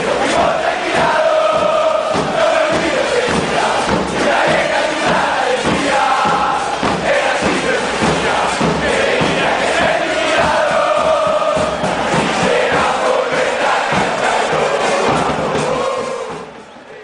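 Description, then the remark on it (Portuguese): A huge crowd of football supporters sings a stadium chant in unison, loud and sustained throughout with a dense, roaring wash of voices and occasional thumps, fading slightly at the very end. “Confesso que sou fã é, dessa música e nós vamos ouvir mais um pouquinho dela.”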